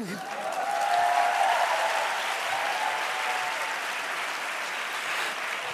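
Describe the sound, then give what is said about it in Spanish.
Sustained audience applause, a dense even clatter of many hands clapping that swells in the first second or two and then holds steady at a moderate level, with no voices standing out. “La gente está aplaudiendo una castración.”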